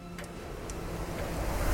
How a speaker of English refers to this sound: You hear the ticking of a clock.